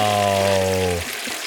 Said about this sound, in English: have to break out the flush for this.